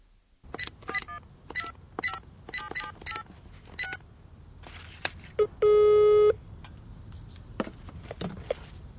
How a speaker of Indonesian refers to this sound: Pesawat telepon kembali berdering di ruang kerjanya.